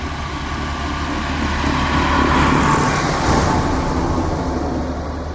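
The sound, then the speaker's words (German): A loud, steady mechanical drone of farm machinery at a farm with cows in their stalls, its engine rumble swelling slightly in the middle before easing off, with no voices. “Ich grüße Bauern und Kühe in ihrem Stall, irgendwelche Maschinen dröhnen laut, ein Kind sitzt mit seinem Vater in der Fahrerkabine eines großen Gefährtes.”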